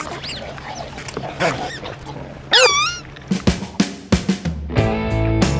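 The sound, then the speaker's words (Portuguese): A dog whines with rising and falling high-pitched yelps, then lets out a quick burst of sharp, loud barks, ending with a sustained buzzy, raspy tone. No talking. “Controle esse controle cachorro!”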